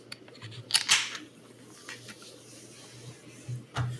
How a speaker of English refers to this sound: I will open my first beer